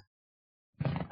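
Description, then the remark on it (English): After a stretch of near silence, a chair lets out a short, groaning creak, fairly loud, lasting under half a second. “That's my chair.”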